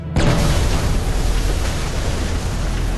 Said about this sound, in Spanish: Una explosión sacude el suelo, lanzando escombros por encima de sus cabezas.